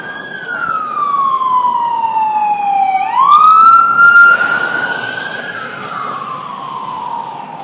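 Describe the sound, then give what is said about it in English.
A loud ambulance siren wails with long, sliding tones on a street with wide bike lanes within sight of the Queensboro Bridge, its pitch dropping as it passes and fading slightly at the end over steady traffic rumble. “It's good to know ambulances can get down here in case something happens to me on race day.”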